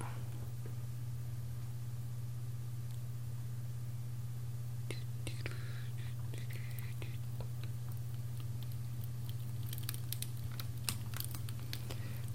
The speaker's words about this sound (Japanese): じゃあ続きましてね焚き火の音焚き火の音もいいですよね